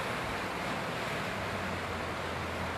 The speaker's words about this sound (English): But the more that we open up and allow them to flow, just like this fucking river, just, just let it move,